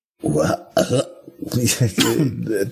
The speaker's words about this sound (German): Der Referent hört, wie ich sichtlich würge.